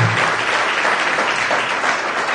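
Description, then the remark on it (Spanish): Steady audience applause from a crowd in appreciation of a written prayer, many hands clapping densely and continuously at a loud, even level for a couple of seconds, with no voices standing out. “No sé quién ha escrito esto, pero merece un aplauso, ¿eh?”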